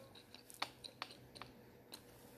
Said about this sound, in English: I'm sorry if you hear smacking, I'm chewing gum